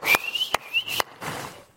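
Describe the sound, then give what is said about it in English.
A person whistles a thin, rising tone, interrupted by three sharp hand claps at a steady pace, then a softer, noisier stretch trails off. The sounds are fairly loud, with no talking. “You know, and if you work with college and career, we used to say, if the lights go out, everybody clap and whistle,”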